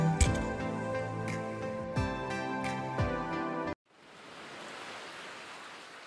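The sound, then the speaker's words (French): Wind rushes steadily through trees in a soft, continuous whoosh, swelling gently. It follows a few seconds of tonal music with rhythmic hits that cuts off abruptly. No one speaks. “J'aime le bruit du vent dans les arbres.”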